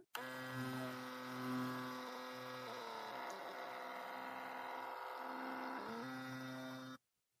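A mini photo sticker printer prints an emoji photo for about seven seconds with a steady, razor-like electric buzz, like an old shaver, that wavers slightly in pitch, then stops abruptly. No one speaks.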